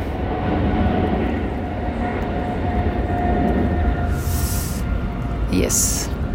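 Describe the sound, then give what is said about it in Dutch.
A loud, steady engine roar of aircraft, heard from a forest next to an airfield, fills the whole stretch, a dense low rumble with a brief hiss rising toward the end. “Oh, er komt even waarschijnlijk, hoor je nu wat geluid. Ik zit in het bos. En ehm, naast het vliegveld ongeveer. Dus waarschijnlijk hoor je dat nu.”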